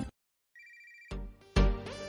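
A brief electronic telephone ring, a steady high-pitched tone lasting about half a second after a moment of silence, followed by loud music bursting in with heavy beats.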